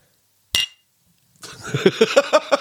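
Two coffee cups clink together once in a toast, a short bright knock with a brief ring. After a pause, a noisy stretch of quick rhythmic pulses follows, rather like laughter.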